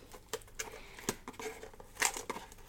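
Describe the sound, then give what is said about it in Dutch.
Crinkling plastic wrapping and tape as a package containing a mug is opened, with a series of sharp, irregular rustles and crackles, one louder burst near the end, and no talking. “Maar je hoort wel openingsgeluiden.”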